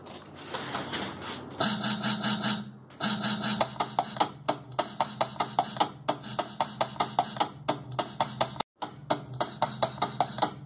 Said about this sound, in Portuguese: Aí, ó. Um grave o atabaque mesmo. Atabaque picotado.